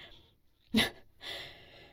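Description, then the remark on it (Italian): Heavy, breathless breathing up close: a faint breath, then a sharp gasping inhale, followed by a long, loud rasping exhale, like someone winded and catching their breath. No talking. “Raggiungo Karen all'imbocco del corridoio principale, ansimando.”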